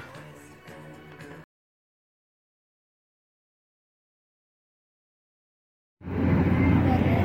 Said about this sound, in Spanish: Bueno amigos, ya estamos de vuelta y si escuchan ese ruido de fondo es que hay una planta que alimenta toda la Feria Internacional del Libro en esta decimoctava edición.